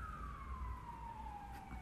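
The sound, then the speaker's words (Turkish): A loud ambulance siren wails steadily, its tone sliding gradually downward as though passing by, over a low rumble of traffic with no voices. “Birisi ayrıldığı için ambulans gelmiş.”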